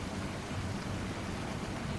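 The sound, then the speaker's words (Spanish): Steady rain hisses throughout with a low, continuous rumble of loud thunder beneath the downpour, in very cold, windy weather. No voices, just a constant, moderately loud storm wash. “Un fuerte trueno me asustó.”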